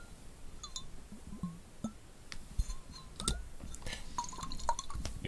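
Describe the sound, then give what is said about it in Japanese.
Liquid sloshing inside a small Suntory Kaku whisky mini bottle, a run of wet glugs and bright glassy clinks and drips coming in irregular bursts, fairly quiet, with no talking. “これね、リキッドサウンドをやるのにね、一番いいボトルです、これ。”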